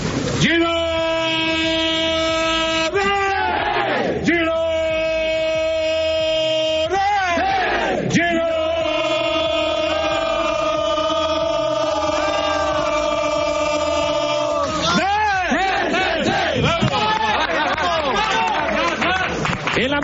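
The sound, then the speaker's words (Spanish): The loud pre-match shout of Michel's football team at Montilivi: many voices hold long, sustained, pitched cries in several bursts, with brief swooping breaks between them and rough crowd noise throughout. “siempre metido, siempre espectacular ese grito eh, antes de empezar los partidos del equipo de Michel.”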